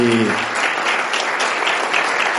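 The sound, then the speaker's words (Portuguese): An audience at a community gathering gives another round of applause for a doctor who spoke. It is a dense, steady wash of many hands clapping at an even loudness throughout, with a brief voice at the very start before the clapping takes over. “Bom, vamos uh, dar mais uma, uma, salva de palmas”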